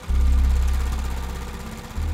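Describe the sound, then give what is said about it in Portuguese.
A suspicious car approaches, its engine idling with a low, steady rumble and faint rhythmic pulsing, loud throughout, dipping slightly before surging back near the end. No one speaks. “Depois de algumas horas, um carro suspeito se aproximou.”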